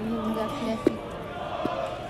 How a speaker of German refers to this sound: Auf jeden Fall schreien wieder alle herum, Leute.